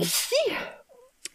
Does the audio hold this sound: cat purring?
no